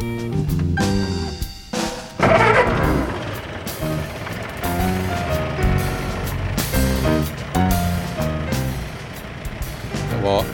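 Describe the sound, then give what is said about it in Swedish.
A car engine, a man's latest car, turns over and keeps running, its steady droning hum shifting in pitch as it revs, with people talking over it throughout. “Men här är hans senaste bil nu då. Eh, som vi kanske tar och brakar igång då och ser om det spelar.”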